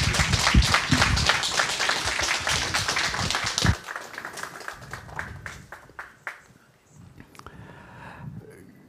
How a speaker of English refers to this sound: Thank you, Professor. Can we give him an applause?